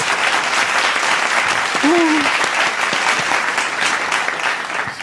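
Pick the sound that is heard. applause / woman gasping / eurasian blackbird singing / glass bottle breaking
applause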